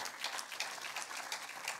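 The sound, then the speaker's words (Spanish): A crowd applauds together for God, a dense, steady wash of many hands clapping at once, bright and crackly, holding for a couple of seconds with no voices over it. “Den un aplauso fuerte a nuestro Dios.”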